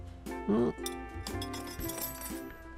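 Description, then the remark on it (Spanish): Four metal wrenches clink and rattle together as tools are being organized, a few sharp bright clanks spread over a couple of seconds with a ringing tone lingering between them. “Y cuatro llaves.”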